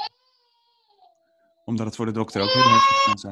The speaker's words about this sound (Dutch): Sorry voor de baby. Ja, dat geeft niet. Ik heb net uitgelegd dat je daar nou eenmaal mee zit vandaag. Ik ga hem even pakken.